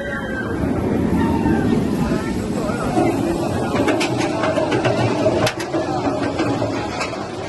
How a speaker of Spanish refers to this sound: Ir en contra de la gravedad es algo muy difícil y esta atracción, la lanzadera, lo consigue.